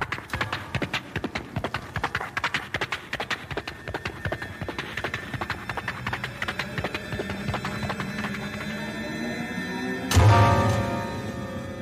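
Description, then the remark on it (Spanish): Horses gallop with rapid, rhythmic hoofbeats as their riders spur them on, steady for several seconds before a sudden loud burst of thunder near the end, with no one speaking. “En ese momento un trueno cimbró la tierra espantando a los caballos. Le metieron las espuelas a los animales para llegar más pronto.”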